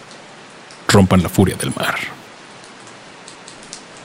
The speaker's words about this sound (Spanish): Un arrepentimiento cuando camina por la playa y comienza a llover. Y las gotas de lluvia